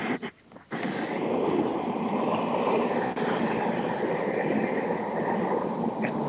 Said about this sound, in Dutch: De treinen knallen door de podcast hier.